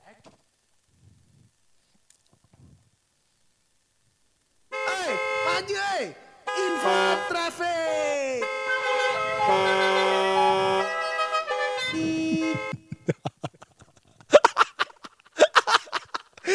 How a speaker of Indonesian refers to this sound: klakson siapa klakson siapa